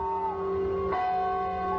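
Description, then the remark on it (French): A church bell tolls a slow death knell, one fresh strike landing midway over the long, humming ring of the previous toll, fairly loud and resonant with no voices. “Mais écoutez, vous entendez cette cloche qui sonne C'est le glas, la cloche des morts.”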